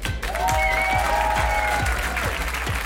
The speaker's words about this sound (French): Ça vaut des applaudissements évidemment.